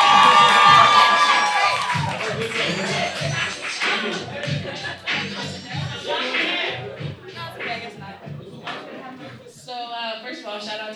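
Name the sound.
audience cheering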